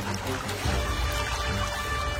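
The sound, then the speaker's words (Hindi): Water pours and splashes in a steady wash as a man scoops river water with his hand and throws it onto another person's eyes, with a continuous trickling texture throughout and no voices. “सागर ने नदी में हाथ डाल के थोड़ा पानी लेकर उसकी आंखों पर मारा”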